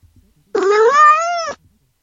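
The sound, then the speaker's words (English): A single drawn-out cat meow from the Cat Translator Alexa skill, about a second long and loud, with a tonal voice that rises and then falls before cutting off into silence. “Cat Translator. Welcome by Cat Translator. Now, what should I translate for you?”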